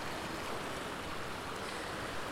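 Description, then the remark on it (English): Steady rushing of a stream tumbling over stones that break it into many mini waterfalls, a dense, continuous splashing wash filling the whole range, fairly loud, with no voices. “The stones kind of break it into well, loads of mini waterfalls, and I know that beyond here there's even more waterfalls”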